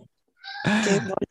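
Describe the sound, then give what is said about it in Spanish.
A small boy at home lets out a brief, high-pitched squealing vocalization lasting about a second, followed by a couple of short clipped bursts, fairly loud against an otherwise quiet background. “Eh, trabajar en mi casa, si escuchan a alguien de fondo, es mi niño.”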